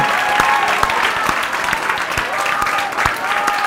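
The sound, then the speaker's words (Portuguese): An audience claps steadily and loudly in praise to the Lord, a dense wash of many hands with occasional sharper individual claps standing out, sustained throughout without pause. “Glorifica ao Senhor, exalta ao Senhor, aplauda ao Senhor pela vitória que Ele nos deu.”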